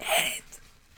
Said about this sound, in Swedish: Får jag snyta mig bara?